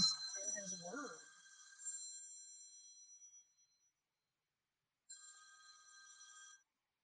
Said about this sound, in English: Uh, oops, sorry about that phone call.